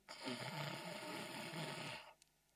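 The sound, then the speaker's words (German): A single long, rasping snore-like inhalation lasting about two seconds, fairly loud, produced deliberately by a voice as the inhale of the Brahmari (bee) breathing exercise, then a brief quiet pause. “Da atmest schnarchend ein.”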